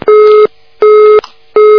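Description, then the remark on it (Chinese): A telephone busy tone after a caller's call-in line dropped: three loud, steady, mid-pitched beeps pulsing in an even on-off rhythm, each lasting under half a second, with nothing else heard. “哎呀，真可惜，打进电话跳线了。”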